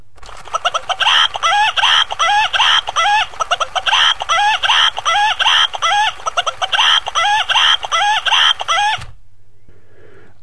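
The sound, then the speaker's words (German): A plush toy rooster, lifted by its neck, squawks in a rapid, repetitive electronic clucking loop, loud, for about nine seconds before cutting off abruptly into near silence. “Der wackelt sogar beim Laufen mit den Flügeln, und wenn man ihn am Hals hochnimmt, was ich gerade tue, dann zetert er.”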